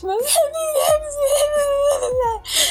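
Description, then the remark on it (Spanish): A person imitates whimpering and crying, a drawn-out, wavering whine broken by breathy sobbing gasps, fairly loud, carried on continuously for a few seconds without any words. “de que se lo pasa llorando.”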